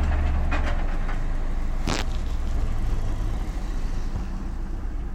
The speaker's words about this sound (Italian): Mamma mia, una roba, un auto articolato enorme, in una stradina piccolissima.